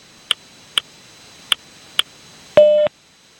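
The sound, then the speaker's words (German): Four short, sharp ticking pips at roughly half-second intervals, followed by a longer, louder buzzy beep from a telephone speaking clock, marking 20:20 and 10 seconds. No voices are heard. “Beim nächsten Ton ist es 20 Uhr 20 und 10 Sekunden.”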